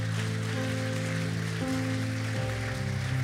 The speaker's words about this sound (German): Lasst uns Jesus mal einen Applaus geben. Amen.